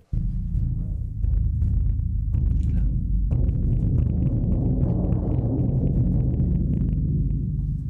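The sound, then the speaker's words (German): A bass drum struck rapidly with two mallets to imitate thunder, building a loud, continuous deep rumble that rolls on steadily with small accents, with no talking. “Also ich probiere das jetzt auch und schlage jetzt einfach auf die Trommel mit einem Schlägel.”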